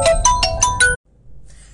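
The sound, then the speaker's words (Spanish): A phone ringtone for an incoming call chimes in a quick, bright melodic pattern of about five tones, loud, then cuts off abruptly, leaving faint background noise. “Ahora luego comprobaré que no se haya metido mucho ruido, que me han llamado por teléfono.”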